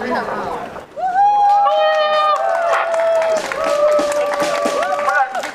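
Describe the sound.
A crowd bursts into sustained applause for people who film fur farms at night, dense clapping with some voices cheering and whistling over it. Loud and steady throughout.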